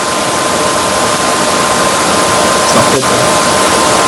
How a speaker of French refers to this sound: Quelqu'un passe l'aspirateur